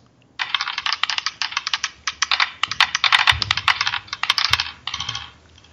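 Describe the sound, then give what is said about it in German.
Dice rattle and clatter in a fast, dense burst of sharp clicks for about five seconds, with a few louder knocks near the end, heard alone with no talking. “Nee, einfach überhaupt mal erstmal würfeln.”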